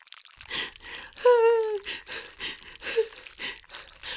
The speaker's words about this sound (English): slime dripped down on me like the dome of his slime body was about to swallow me whole